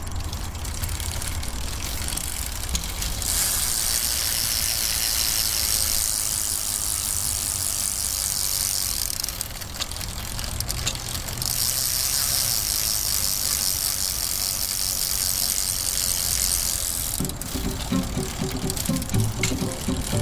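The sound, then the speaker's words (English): Bicycle freewheels ratchet in a steady, hissing buzz that swells and fades over a low road rumble, as many riders coast together during a Critical Mass group bicycle ride in Los Angeles, with no talking. “his foray along the latest Los Angeles Critical Mass bicycle ride, where he rode and spoke with many cyclists”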